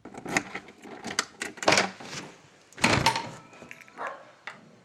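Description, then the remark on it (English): A dog sound effect with several rough, growling barks and snarls in uneven bursts, loud, with no one talking over it. “No, it's Eagle versus Frog, not Eagle versus Dog. I think the uh, sound effects department there got a little bit confused.”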